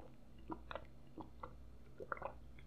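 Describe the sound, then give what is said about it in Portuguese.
Someone drinks water, with a series of quiet, wet gulps and mouth clicks at irregular intervals over a low background hum, with no talking. “ASMR bebendo água.”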